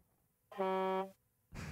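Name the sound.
air horn sound effect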